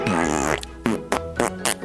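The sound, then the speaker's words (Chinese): A voice beatboxes an imitation of a fart: a long, wavering, buzzy raspberry, then four short sharp puffs in quick succession, all fairly loud with no talking. “现在我要表演一个特别的技巧，就是 beatbox，我要模仿放屁。”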